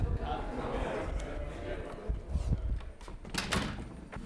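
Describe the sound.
A door is pushed shut, with a few soft knocks and a final click against a low rumble of room noise and faint voices.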